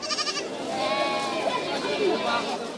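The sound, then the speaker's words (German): Sheep, small white and strong black ones, shorn and thick-fleeced, bleat repeatedly amid the busy livestock market in Nizwa, Oman, their wavering cries rising over a steady crowd murmur of voices. “Die Tiere auf dem Viehmarkt in Niswa stammen aus allen Teilen des Sultanats.”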